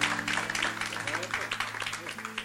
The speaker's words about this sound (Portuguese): Agora o povo, eu vi que as palmas fraquejaram.